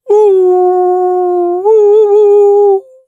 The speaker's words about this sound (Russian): Бак начинает чувствовать Call of the Wild, слышать э, вой волков